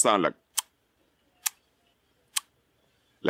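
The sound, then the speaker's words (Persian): Three crisp dental tongue clicks, the click consonant pronounced for the letter C, made at a steady pace about a second apart, with a brief bit of speech before them and another voice starting right after. “کلیک سی که به این صورت تلفظ میشه”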